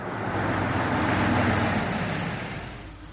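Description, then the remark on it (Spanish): A laundry truck's engine rumbles with a broad, steady roar, swelling slightly toward the middle and easing off as it pulls in on a desert road where a car is parked; no voices are heard. “Un camión de la lavandería llega.”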